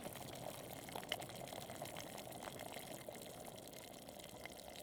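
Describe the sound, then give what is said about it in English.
Hot water for tea pours steadily into a mug, a continuous liquid gurgle that runs without pause for several seconds, no voices over it. “So the hot water's ready.”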